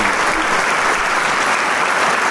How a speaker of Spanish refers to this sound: el público le agradece con el aplauso cálido